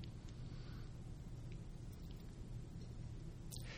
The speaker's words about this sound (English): This is a huge storm in Montana. Storms like these suck water in from hundreds of miles away.